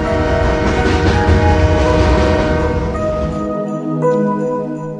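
The Polar Express train rumbles loudly and steadily along the tracks, thundering northward through cold, dark forests in the quiet wilderness, a heavy low roar with sustained horn-like tones above it, the rumble thinning out near the end while the tonal notes linger.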